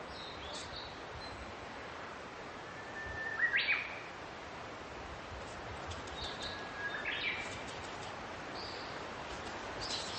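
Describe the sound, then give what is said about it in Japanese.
A woodpecker drums on a tree in two short, rapid bursts a few seconds apart, over a steady outdoor hiss with faint bird chirps, heard on a walk from Taisho Pond toward Kappa Bridge in Japan. “いたいたキツツキキツツキこの木のね上からセンチぐらいのにこれがのうんもう少しでまた叩くよきっと”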